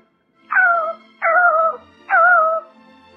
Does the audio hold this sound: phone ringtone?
no